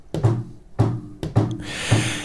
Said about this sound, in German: Ich saß in meinem Schlafzimmer und las ein Buch, sagte sie, als ich gegen 23 Uhr ein Klopfen hörte. Ein langsames, stetiges Klopfen.